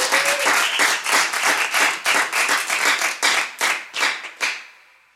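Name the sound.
audience applause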